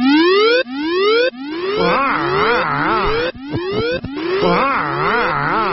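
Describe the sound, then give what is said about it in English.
A loud electronic alarm sound effect: several rising whoop sweeps in quick succession, then a rapid up-and-down warbling wail that repeats, with no voices over it. “That's a good alarm.”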